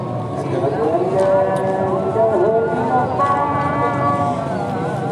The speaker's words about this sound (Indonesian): sorry guys di sini azan dulu kita diem guys